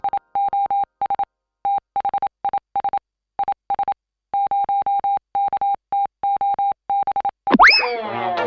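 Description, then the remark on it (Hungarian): A single steady-pitched Morse code tone beeps out quick patterns of short dots and longer dashes, loud and clear, before a brief burst of a different sound cuts in at the end. “A műsorszám Morze megjelenítést tartalmazott.”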